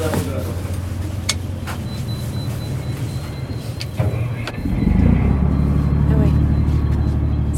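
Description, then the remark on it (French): A fishing boat engine drones steadily at low pitch as the boat leaves port while it is still night, then throttles up about halfway through into a louder, heavier rumble, with a few sharp knocks and clatters. “Ça y est, on quitte le port.”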